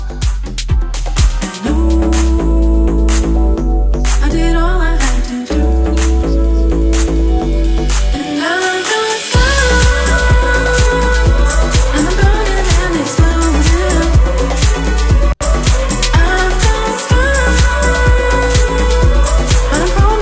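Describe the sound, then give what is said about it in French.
A recorded song, played as the week's music recommendation, plays loudly throughout: dense instrumentation over a heavy bass line and steady beat, with a brief drop in the low end midway before the full arrangement returns. “Je vous propose, ah oui, parce qu'il y a une recommandation musicale aussi, je suis complètement foncé.”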